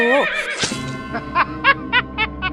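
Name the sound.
horse neighing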